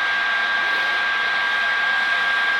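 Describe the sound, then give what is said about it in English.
A heat gun blows hot air to melt wax onto brown paper, in a steady, loud whooshing roar with a faint high whine running through it, unbroken for the whole stretch and with no voices over it. “I'm gonna flip this heat gun back on. Keep blabbering away. There's the heat gun.”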